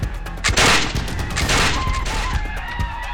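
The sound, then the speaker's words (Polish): Musket gunfire crackles in a rapid, overlapping volley, with a couple of louder blasts amid scattered shots, filling the scene with battle noise, coming from other parts of a port as a battle for the town begins. “Z innych części portu zaczęły dochodzić odgłosy strzałów z muszkietów.”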